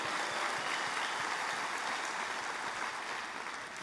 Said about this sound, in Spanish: Dale un fuerte aplauso al Señor.